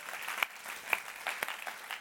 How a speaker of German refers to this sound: Ihr seht, das F12 ist wunderschön dekoriert worden. Geben wir doch denen mal einen Applaus, die das dekoriert haben.